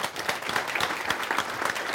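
Thunderous applause from an audience at Bankgården welcoming Terje Svabe for a P2 radio event about the EEA, a dense, steady wash of many hands clapping at once, loud and sustained throughout with no voices rising above it.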